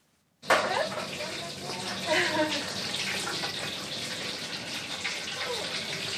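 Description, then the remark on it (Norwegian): Fish deep-frying in pots of hot fat for lunch packs at a small hotel and eatery gives a loud, steady sizzling hiss that starts abruptly and continues throughout, with faint voices murmuring in the background. “Det koker i smultgrytene til yokobai-kava. Her frityrstekes fisk”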